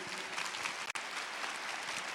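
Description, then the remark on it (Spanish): A crowd claps steadily for six people who have come forward, a dense patter of many hands filling the whole stretch, with one brief gap in the middle before the clapping continues at the same even level. “un aplauso para ellos porque son valientes.”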